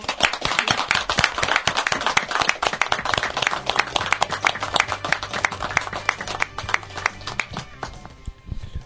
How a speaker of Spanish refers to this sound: Bueno, eh, yo propongo un fuerte aplauso para este grupo humano.